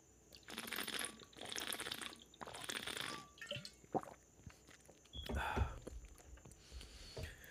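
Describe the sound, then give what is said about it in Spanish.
Quiet sips and swallows of water from a bottle, with soft plastic crinkling and small wet mouth sounds in a few short bursts, ending in a slightly louder gulp. “Hablando de agua, voy a dar un sipi.”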